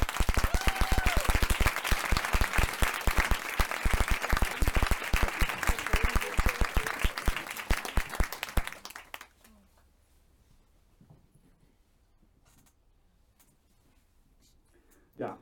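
Dense audience applause as a guest is invited onto the stage, many hands clapping loudly and steadily for about eight seconds, then fading away into near silence with a few faint rustles and a soft knock at the end.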